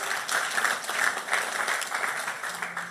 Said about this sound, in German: Da kann man schon mal einen Applaus geben hier.